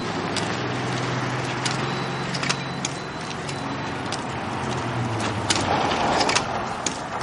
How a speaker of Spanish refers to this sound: Un coche pasa de largo.